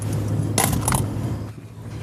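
Two coins drop in quick succession, clinking sharply and metallically into a box in a car where passengers leave their fare contribution, over a steady low rumble like a running car interior.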